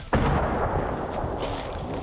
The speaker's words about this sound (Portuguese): Soldados estão por toda parte. Eles tentam recuperar o controle de uma vila perto de Kiev. Tiros e explosões atingiram a área.